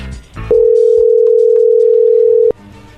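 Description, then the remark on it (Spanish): A steady, loud telephone tone holds for about two seconds while a call is being placed, then cuts off abruptly, with faint background noise before and after. “Bueno, vamos a marcarle, vamos a ver si te manda los chocolates a ti”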